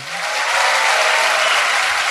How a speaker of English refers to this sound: uh, ladies and gentlemen, give a massive round of applause to Tim Vine.